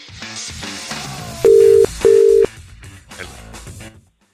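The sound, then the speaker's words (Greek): Two loud, steady telephone ringing tones pulse back to back, each under half a second, over a busy musical background that continues before and after, as a wake-up call is placed on the Sokafe Morning Show radio program. “τα δικά σα wake up call 6 είναι 7800 και 148. Το όνομά του, το τηλέφωνό του”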